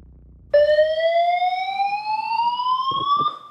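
A fire alarm abruptly blares to life in a courtroom during a court hearing, prompting a brief evacuation; a loud, continuous electronic tone that slowly climbs in pitch and holds steady without pause, with no voices over it.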